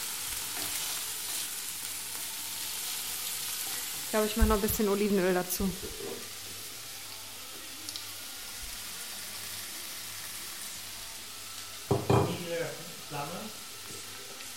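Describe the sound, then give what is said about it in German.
A mix of artichoke hearts, carrots, onions and bouquet garni herbs sizzles steadily in a pan over a very low flame, a continuous crackling hiss throughout, with a voice speaking briefly twice over the frying. “Das ist ein Gemisch aus Artischocken, Herzen Karotten, Zwiebeln und dem Bouquet Garni, also dem, der kleinen Kräuterzusammenstellung. Und das brutzelt jetzt hier.”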